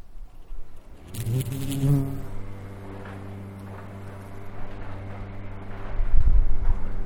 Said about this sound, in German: Das ist übrigens eine Biene, die gerade in unseren Malben ist. Die ist von oben bis unten voll Blütenpollen.